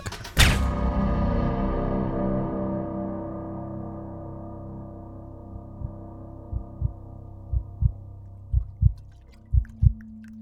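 A heavy boom rings out and fades into a long low hum, then a man's own heartbeat emerges, soft, muffled thumps pulsing in a regular rhythm through the last few seconds.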